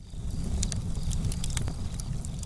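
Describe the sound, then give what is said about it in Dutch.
A fire burns in the Opa haard fireplace, with a steady low roar and a scattering of sharp, irregular crackles and pops. No one speaks. “je hoort op de achtergrond dat ik even de Opa haard heb aangedaan.”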